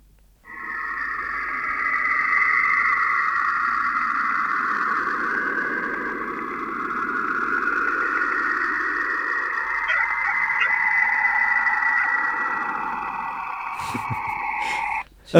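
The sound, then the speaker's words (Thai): Eerie, continuous electronic whooshing and droning from Saturn's radio emissions recorded by NASA's Cassini spacecraft, with wavering high tones layered over a low rumbling swell, steady and fairly loud for about fourteen seconds before ending abruptly. “อันนี้มันเป็นมันเป็นเสียงจากยานแคสซินีเว้ยพี่ คือเขาอ้างว่านาซาอ้างว่าเป็นการเป็นเสียงของการปล่อยรังสีของดาวเสาร์เว้ยเออมันมันจะมีความเสียงเหมือนเสียงหวยหวนของอะไรบางอย่างอยู่แล้ว”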